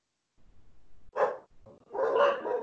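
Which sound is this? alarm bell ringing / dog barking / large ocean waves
dog barking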